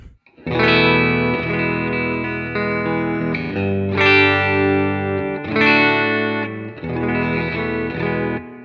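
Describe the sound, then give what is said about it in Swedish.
An electric guitar played through a preamp, treble set at about one o'clock and the other at eleven o'clock, plays sustained, overdriven chords with a bright, crisp top end, each strum ringing out before the next, several in sequence with no talking. “Så nu ställer jag diskanten lite på klockan ett och den andra på klockan elva. Eh, så låter det så här då.”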